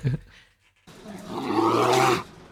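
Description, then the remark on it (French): A deep, rough bear roar rises from about one second in, swelling loud and harmonic before cutting off, preceded by a brief low grunt and a short near-silence. “c'est l'ours. Oui, c'est l'ours.”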